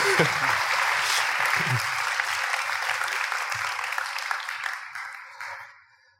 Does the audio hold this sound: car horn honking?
no